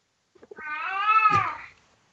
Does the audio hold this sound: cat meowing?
yes